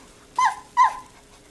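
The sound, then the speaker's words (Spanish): A female pet dog whimpers twice in quick succession, two short, high, whiny cries with a brief pause between them and quiet surroundings otherwise. “Ay, chicas, deberían ver esta lindura de perra que tengo.”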